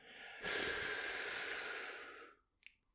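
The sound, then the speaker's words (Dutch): A single long, deep, slow breath drawn in during a breathing exercise, a steady airy rush lasting about two seconds that fades out, followed by a faint small click. “En ja, op het moment dat er de ademhaling wordt toegepast, hè, dus flink diep langzaam inademen.”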